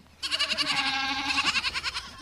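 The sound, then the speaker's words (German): A goat bleats loudly, one long wavering cry with a trembling, pulsing quality that lasts about two seconds, among a few goats searching for food in front of a family's simple hut. No one speaks. “Dazwischen suchen ein paar Ziegen nach Futter.”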